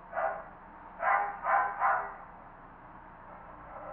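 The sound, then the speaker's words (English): A dog barks four times in the background, one bark followed after a pause by three in quick succession, then quiet background for the rest. “and you hear a dog barking in the background.”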